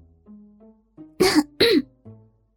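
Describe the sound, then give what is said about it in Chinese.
A woman in a car's passenger seat gives a loud, harsh cough that breaks into two quick bursts, each roughly a quarter second, set against a faint, low background hum before and after. “我咳嗽了一声，指了指前面。”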